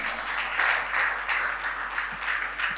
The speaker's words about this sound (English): Come on now, if you want to clap, go ahead and clap. Yeah?